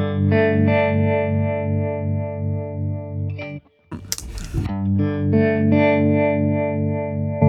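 An electric guitar played through an effects pedal set to Mint Green, with thick, sustained distorted chords, a short pause and a scratchy burst of noise before the chords ring out again.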